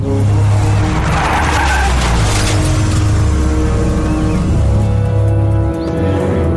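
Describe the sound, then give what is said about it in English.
A Jeep pulls up with loud skidding tires in Hulu's Animaniacs return announcement, a reference to the Jurassic Park scene where they first arrive and see the dinosaurs: a sustained screech over a low, steady engine rumble that holds for several seconds before easing slightly near the end. “the pull up in the Jeep.”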